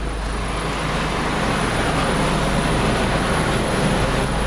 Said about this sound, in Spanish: Oiga, y hablando del IFA y esto, pues ahí viene el helicóptero, entonces voy a subir un poquito la voz.